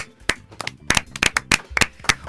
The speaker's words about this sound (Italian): Applauso!